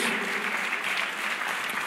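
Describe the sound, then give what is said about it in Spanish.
An audience applauds the Lord, steady dense clapping from many hands that holds an even, fairly loud level for the whole stretch, with no voices rising above it. “Si dar un aplauso al Señor, porque Él es fiel a nosotros.”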